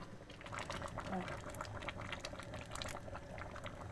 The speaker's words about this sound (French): On a de la crème de coco. Euh, quoi comme quantité 2 x 400, ça fait 800. On a 800 ml de crème de coco qu'on va balancer dans la casserole.